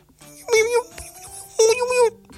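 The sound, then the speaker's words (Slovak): A voice imitates the tiny, high-pitched squeaky voice of a little flea in a story, two short chirpy bursts of pinched, nonsense-like babble separated by a brief pause, fairly loud. “Maco počul len takéto niečo.”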